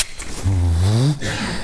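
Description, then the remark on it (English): A person's voice imitates a wild turkey gobble: one short, warbling, throaty burst lasting under a second, loud, with no other talk around it. “Loudest gobbling turkeys I've ever heard in my life.”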